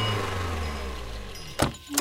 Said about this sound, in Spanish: Para sorpresa, llegó la comisión. Llegaron en sus autos, pidieron hablar con los cabecillas de la huelga.